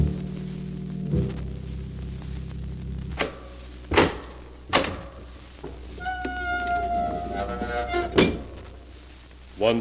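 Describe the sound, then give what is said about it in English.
The ponderous door of a secret vault groans open over a low rumble, with several loud thuds and clunks followed by a long, wavering creak before a final heavy clank. “again the keeper of the book has opened the ponderous door to the secret vault”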